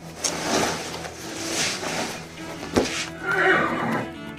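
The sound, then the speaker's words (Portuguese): A horse neighs and whinnies in several loud bursts over a few seconds, with a steady low rumble and scattered noise in the background. “Colocar no cavalo e a gente vai correr.”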